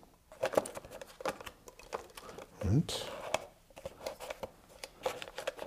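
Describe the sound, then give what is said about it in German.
A coffee filter paper impregnated with Carbon Pro waterproofing agent being fitted into a Weck-style glass jar: soft, irregular rustling and light tapping throughout, with one brief rising squeak partway through and a faint voice murmuring now and then. “Und dieses Filterpapier werde ich jetzt einlegen in dieses Glas”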